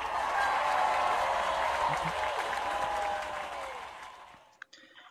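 The audience of the Chinese comedy show Roast (吐槽大会) breaks into loud, dense applause for the newly announced champion, holding steady for about four seconds with crowd voices mixed in, then thinning out and fading away.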